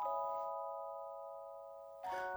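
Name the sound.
clock chiming the hour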